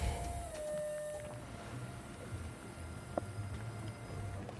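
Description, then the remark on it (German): Steady rain falls outdoors by a garage, making a constant, even hiss with a low background rumble, joined briefly by a faint whining tone early on and a single sharp tap near the end. “Ich bin nämlich langsam schon nass. Wir stehen nämlich im Regen.”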